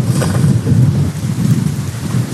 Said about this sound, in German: Ein Augenblick, meine Bibel kämpft gerade gegen mich. Oder der Wind, sagen wir es mal lieber so, der Wind kämpft gegen mich, nicht meine Bibel.